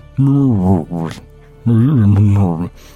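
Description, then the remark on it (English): A voice mimics the muffled, wordless murmur of conversation in the cab of a car driving on a highway, in two drawn-out bursts of mumbling with a short pause between, fairly loud. “murmuring as conversation is going on in the cab.”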